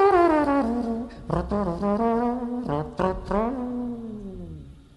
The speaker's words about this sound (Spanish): Y bueno, digamos que el, instrumento eh, principal es el trombón, es como con el que más me, me destaco. ¿Y cómo suena el trombón? El trombón suena de esta forma.